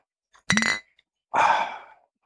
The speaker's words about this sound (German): Lass auch nochmal anstoßen. Ja, ähm, hier mit dem Bier.